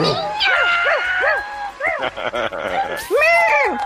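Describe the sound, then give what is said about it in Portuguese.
A person imitates a cat's meow several times in a row, drawn-out, rising-and-falling mews, loud and close, with a longer, more emphatic meow at the end. “E aí, miau, miau,”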